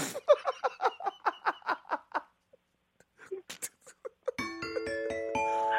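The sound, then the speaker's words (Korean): A voice imitates a steam locomotive: a steady run of about ten rhythmic, breathy chugs, a few scattered puffs, then a long, loud, sustained whistle-like tone held to the end. “자, 오늘 성대모사 뭐 준비하셨습니까? 아, 기차 소리도 있습니다.”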